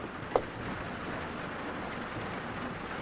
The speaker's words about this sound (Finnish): Sieltä alkaa Ihan niin yksittäiset pisarat alkaa kuulla. Ne on isoja ne pisarat sormenpään kokoisia.